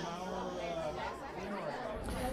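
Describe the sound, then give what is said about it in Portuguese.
A crowd of people chattering loudly all at once, many overlapping voices forming a dense, continuous babble with no single voice standing out. “Ei, pessoal! Vamos fazer silêncio, cacete!”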